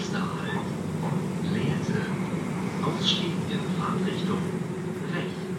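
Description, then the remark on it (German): A train travelling to the countryside near Hannover, Germany, rolls along its rails with a steady low rumble and dense rattling throughout, while faint, indistinct voices drift in the background. “Weil mich das wirklich neugierig macht, steige ich in den Zug und besuche Katar Joos auf dem Land bei Hannover.”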